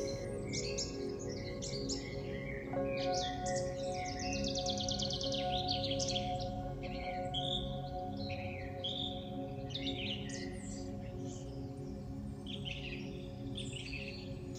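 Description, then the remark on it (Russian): Several birds sing and chirp continuously in a forest, bright overlapping trills and tweets, with a steady low hum underneath and no voices. “Сейчас есть только вы, лес и пение птиц.”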